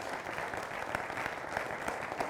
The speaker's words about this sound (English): I, I, I want to say thank you to the worship group again. I don't. Yeah, we can. You can clap them.